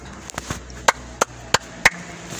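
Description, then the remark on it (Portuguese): One person clapping for themself: a few soft, uneven claps, then four louder, sharp claps spaced roughly a third of a second apart, with no talking. “Bate palmas pra mim mesmo.”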